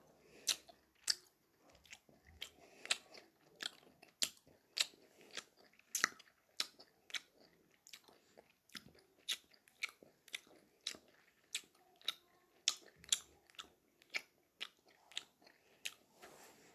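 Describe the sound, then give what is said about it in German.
Wet mouth smacking and chewing repeats in a steady rhythm of sharp clicks, about two per second, with no talking, as someone chews a mouthful of several gummy bears at once as ASMR. “Ich mache jetzt ein kleines ASMR. Und zwar Schmatzen.”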